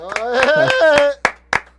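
A short burst of sharp hand claps, about seven in a loose, steady rhythm, with a drawn-out voiced exclamation over the first half before the last claps ring out alone.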